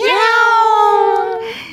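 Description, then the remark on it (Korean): A single long, drawn-out cat meow, fairly loud, holding a steady pitch before tapering off at the end, with nothing else around it. “5421님 정답은 고양이.”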